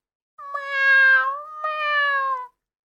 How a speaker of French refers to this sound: Mais le chat, terriblement assoiffé, miaula de plus belle.